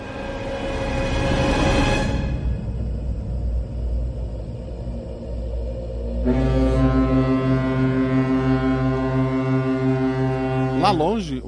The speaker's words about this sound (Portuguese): barco se aproxima.